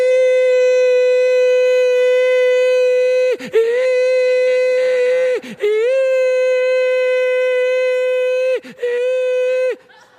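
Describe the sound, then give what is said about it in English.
A loud, sustained, buzzy emergency-broadcast-system test tone like the one that came on TV, seemingly imitated by a voice, held steady at one pitch for about ten seconds with a few brief breaks and wavering restarts. “This is a test of the emergency broadcast system.”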